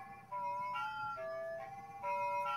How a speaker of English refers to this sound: With this control here, I can bend the whole pitch of everything. And with mm-hmm. this one, it uh, it's subtle, but it's changing the frequency of the tremolo effect that's applied to the notes.